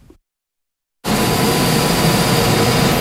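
After about a second of silence, a new wood pellet boiler in Grobiņa, South Kurzeme municipality, running as the October heating season begins, suddenly roars into hearing: a loud, steady mechanical whoosh and hum that continues unchanged to the end, with no voices.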